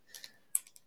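A handful of soft, sharp clicks at uneven intervals, like a mouse or keys being pressed, faint and set back in an otherwise quiet room with no talking.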